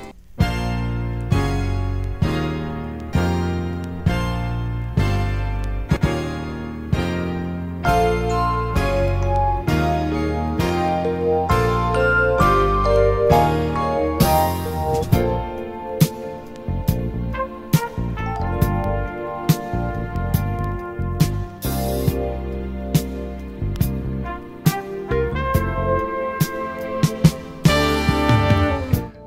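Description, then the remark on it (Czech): A produced music track built on a sampled classical passage, with sustained melodic harmonies over heavy bass and a steady beat; the second half turns sparser with sharp rhythmic hits. No one speaks. “Tak a samozřejmě to není nic proti něčemu, protože e, dobře použitá klasika je, je vždycky super.”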